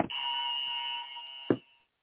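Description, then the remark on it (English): A small tabletop buzzer is pressed once, giving a steady, bright electric buzz that holds for about a second and a half before cutting off with a click. Fairly loud, no voices. “All I have is one little buzzer that I'm actually setting in front of me like it's 1971.”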